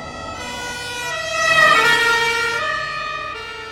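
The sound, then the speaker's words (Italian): A car with sirens wailing overtakes, swelling louder toward the middle and then fading as it moves away, with a steady road rumble underneath and no voices. “Sentivo le loro voci concitate, che si fecero mute quando un'auto ci superò a sirene spiegate.”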